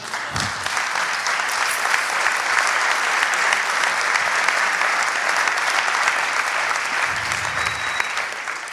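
Sustained audience applause, a dense, steady wash of many hands clapping at an even, fairly loud level throughout, with no voices standing out above it.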